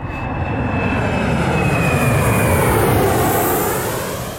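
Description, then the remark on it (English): A loud, steady roar of an airplane's jet engines as the aircraft, bound for Tanzania, flies overhead, a broad rushing drone with a faint whine shifting in pitch, and no voices. “So basically, hopped on a plane to Tanzania like a week later.”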